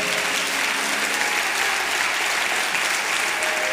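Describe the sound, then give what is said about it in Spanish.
An audience applauds steadily, a dense, even wash of clapping hands that holds at a constant loudness throughout without anyone speaking. “Gloria a Dios aplauda.”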